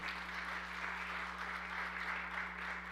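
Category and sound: crowd, audience applauding loudly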